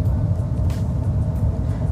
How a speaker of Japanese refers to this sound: えー、続いて今トラックがはけまして